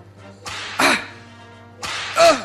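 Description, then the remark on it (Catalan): Whip cracks in two pairs, each a quick snap followed by a louder, sharper crack, over a steady low hum with no talking. “collons de fuet, prou!”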